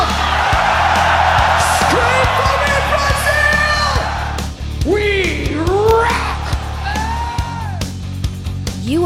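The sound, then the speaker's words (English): A large crowd at a heavy metal concert in Brazil roars and screams loudly, with individual voices whooping and yelling over a dense wall of cheering, fading slightly midway before rising again with more shrill shouts. “Scream for me, Brazil!”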